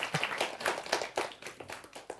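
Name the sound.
one person clapping hands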